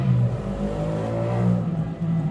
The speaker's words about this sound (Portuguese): Passando uma moto aqui, como de sempre